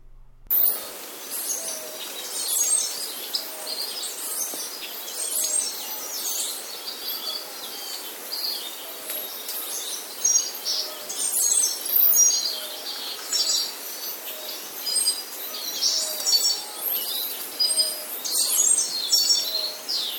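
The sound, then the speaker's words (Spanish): A montane cloud forest soundscape in Veracruz full of birds: overlapping chirps and high trilling calls over a steady hiss of insects, busy and continuous throughout with no voices. “Diego Barrales nos ha mandado este bosque a ver, es que no alcanzo a ver. Mesófilo. Bosque mesófilo de la montaña de Veracruz.”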